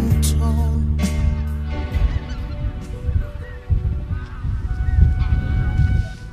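A large flock of about 3000 geese taking off and flying overhead at the Scholacke honks and calls continuously, a dense overlapping chorus of many birds at once, loud, with no speech.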